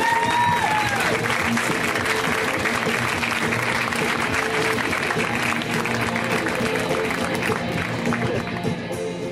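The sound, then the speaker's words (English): Steady, loud applause from a large audience welcoming a comedian to the stage, dense clapping with some crowd noise and cheering mixed in, continuous without a break. “Let's hear it right now”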